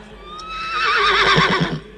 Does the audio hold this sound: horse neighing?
yes